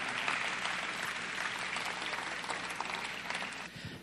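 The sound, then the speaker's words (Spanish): A crowd claps loudly and steadily for its leaders at a church ministries exhibition, a dense wash of hand claps that holds at full strength for about four seconds before easing slightly at the end. “Denle un aplauso fuerte a nuestros líderes, que en cualquier momento van a estar aquí arriba.”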